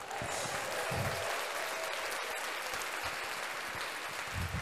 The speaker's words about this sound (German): Ja, ja nee, nee, äh, ähm, genau, also, ähm, machen wir Applaus, oder? Juhu. Genau, juhu.